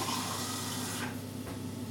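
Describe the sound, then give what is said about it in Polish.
About 200 ml of water, four-fifths of an ordinary glass, pours steadily for about a second with a soft, hissing splash while cooking, then trails off into a quieter trickle over a low background hum. Nobody speaks. “Teraz, e, tak jak mówiłam wcześniej, 200 ml wody, czyli 4 e, piąte takiej zwykłej, tradycyjnej szklanki”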